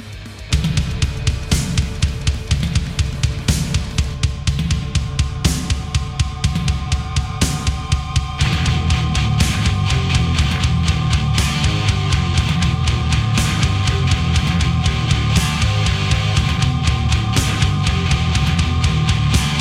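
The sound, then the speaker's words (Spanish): A loud American thrash metal band track plays with no vocals, driven by pounding, steady drum hits and distorted guitars, swelling into a denser, fuller wall of sound partway through; it is the first song and title track of the band's fifth studio album, released in 1993. “Así que antes de comenzar a disfrutar de esto, vamos a escuchar el primer tema que suena así.”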